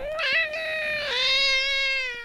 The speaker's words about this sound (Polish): Kot nie chce. Kot wyraził swoje zdanie na ten temat, tak to wygląda.